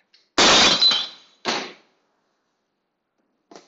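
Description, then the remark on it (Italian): A loud crash of objects being thrown and hitting something hard in an apartment building, followed by a second smaller impact and a faint clatter a moment later, without voices. “E poi ogni volta che tiro tutte queste robe, nel condominio si sente un vociare del tipo si sarà veramente incazzata oggi.”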